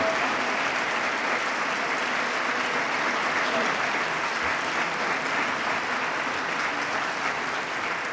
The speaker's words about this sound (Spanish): Continúan el aplauso, largo aplauso al pregonero por parte de los cofrades que hoy se dan cita en este Teatro Infanta Honor.